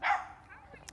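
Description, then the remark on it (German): A single sharp dog bark right at the start, loud, followed by quieter fading sound and a faint high click near the end. “Ähm, sorry für den Hund.”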